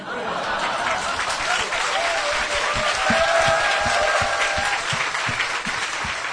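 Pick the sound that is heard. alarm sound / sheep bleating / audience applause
audience applause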